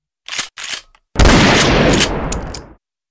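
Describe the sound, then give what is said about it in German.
Two quick metallic clacks of a pistol slide being racked, a short pause, then a loud gunshot with a long roaring decay that fades over about a second and a half. “Pistole, die, ja. die durchgeladen mhm. wird. Ja, durchgeladen Sie und abgefeuert.”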